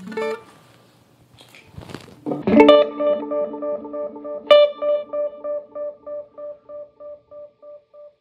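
Bright guitar notes, capoed at the seventh fret, struck with a touch of compression and echoed by two delays including a Line 6 Echo Pro, the repeats cascading and bouncing in an even, pulsing rhythm that slowly fades over several seconds. High, chiming tone with no voices.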